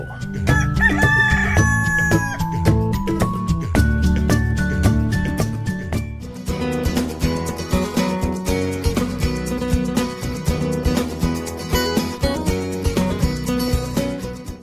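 A rooster crows loudly near the start, its call riding over a busy, steady music jingle that continues to the end.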